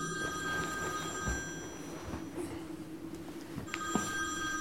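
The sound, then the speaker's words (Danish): A telephone rings continuously with a steady, bright electronic tone throughout, fairly quiet against a low background rumble, with no one speaking. “Der var flere gange, hvor han stod op om natten og, og skændtes med hende i telefonen”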